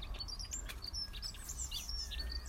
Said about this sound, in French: On entend justement tous les oiseaux. Je crois qu'il y a un nid juste à côté.